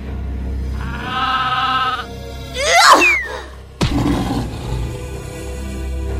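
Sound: sheep bleating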